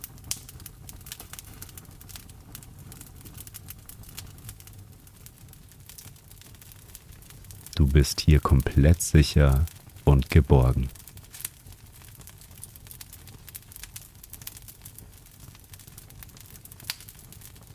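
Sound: crackling fire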